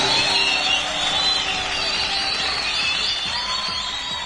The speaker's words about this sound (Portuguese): É, você aí, talento esquecido. Palmas.